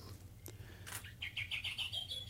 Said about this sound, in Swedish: Ja, det här är en märklig fågelsång som melodin påminner mycket om rödvingetrast.